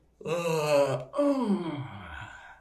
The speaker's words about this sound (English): that's the earth voice. Oh, a yawn.